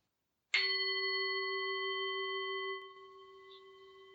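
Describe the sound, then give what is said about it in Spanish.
A single strike of a meditation gong rings out with a bright, clear tone, sustaining its shimmering resonance for a couple of seconds before softening into a quieter, lingering hum. “Al finalizar la meditación, voy a tocar el gong y a dejar tres minutos de silencio, después de los cuales voy a volver a tocar el gong y terminar el audio.”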